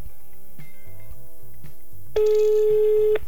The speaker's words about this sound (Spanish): Así que en este momento lo estoy llamando. Pongo en altavoz. A ver si se escucha. Ahí va, ahí se escucha.